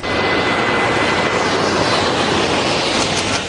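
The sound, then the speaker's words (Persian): A loud, steady roar of an unmanned drone aircraft's engine as it flies, a dense continuous rushing drone with no voices, holding level for the whole few seconds. “کارهایی که در بخش هواپیمای بدون سرنشین پنهانکار در بخش بمبافکن ها انجام دادیم”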